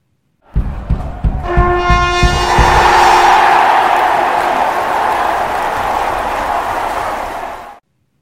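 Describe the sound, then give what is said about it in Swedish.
A bright trumpet fanfare blares out over a roaring arena crowd, the brassy notes fading as loud, sustained cheering swells and carries on for several seconds before cutting off. “Trumpeterna bryter ut i sång och publiken exploderar.”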